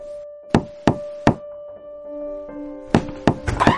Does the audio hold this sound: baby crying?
no